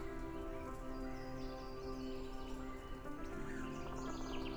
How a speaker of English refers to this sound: Today, I am grateful for the rain. I might not always be happy to see it but it is so important that I am learning to be grateful for it.